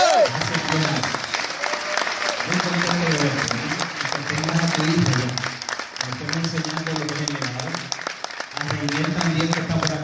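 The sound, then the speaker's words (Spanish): A large audience in Costa Rica applauds steadily for about ten seconds for the speaker's team leaders who are present, a dense, continuous clatter of clapping, while a man's voice speaks intermittently over it. “Hoy también tengo personas aquí que me acompañan, líderes de mi equipo, quien pido un aplauso a Dios en Esprecha de Internacional.”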